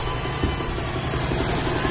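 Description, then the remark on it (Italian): A helicopter sound effect in a music track: the rotor chops steadily through a dense, continuous roar, its low thudding pulse loud and never letting up across the short stretch. “senti sta roba elicottero, non c'entrano i …”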